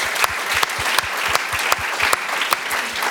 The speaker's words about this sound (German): Gebt denen nochmal einen riesen Applaus. Es ist fantastisch.